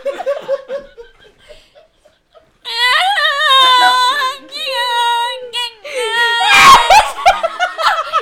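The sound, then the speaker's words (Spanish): A person loudly imitates a diaphone, a sound device from India that sounds like a crying baby, in several warbling, high-pitched wailing bursts, with quieter laughter and chatter beforehand and laughter breaking in near the end. “Diáfono que suena como el grito de un bebé llorando.”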